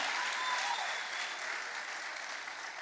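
An audience applauds a woman for telling a story, in a steady, dense burst of applause that holds at an even level for about three seconds, with no voices over it.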